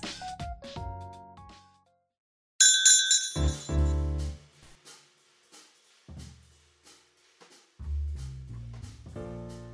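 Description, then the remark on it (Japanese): A bright glassy clink rings out once and lingers with a shimmering tone, followed by softer knocks and handling sounds, like glasses of fizzy wine from a Saitama winery touched together in a toast. “乾杯乾杯最近飲んでばっかりですね、ね、ずっと飲んでる”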